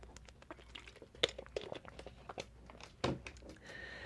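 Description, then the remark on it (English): Pages of paper notes rustle and crinkle as they're handled and pulled apart where they stick together, with a run of irregular crisp rustles and a couple of sharper tearing snaps, fairly quiet with no talking. “Dang it, I'm looking through my notes here and the pages are sticking together.”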